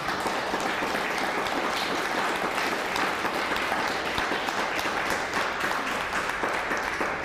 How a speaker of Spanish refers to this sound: un fuerte aplauso a Guatemala también.